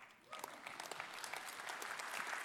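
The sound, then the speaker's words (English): The Central Church audience breaks into steady applause for the church's new mission statement, many hands clapping in a dense, crackling wash that starts after a brief pause and holds at an even, moderate loudness. “You can clap if you want.”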